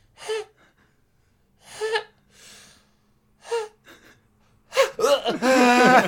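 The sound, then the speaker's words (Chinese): A voice imitates someone gasping for air, unable to breathe during a pneumothorax (collapsed lung): three sharp, strained inhalations with a nasal tinge, then a louder, longer run of raspy, choking gasps at the end. “真的，哦不对不对，我那声音还带有一点那个鼻腔共鸣， 嗯， 对对对，是这样是这样，因为气胸， 他他到一个点之后就可以呼吸了”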